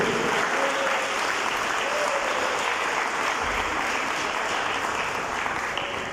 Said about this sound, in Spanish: ¿En cuántos corazones reina Cristo Jesús? ¿Por qué no le da un aplauso entonces a Él en esta noche?